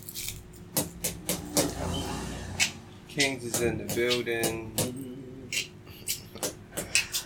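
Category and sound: household object, paper being crumpled up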